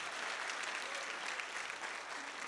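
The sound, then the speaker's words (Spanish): An audience applauds the Lord loudly and steadily in the morning, a dense wash of many hands clapping together at an even level with no talking over it. “Por lo tanto, regálele un aplauso bien fuerte al Señor esta mañana.”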